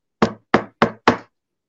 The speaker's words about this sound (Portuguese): vou bater aqui na madeira, não sei se vocês vão escutar.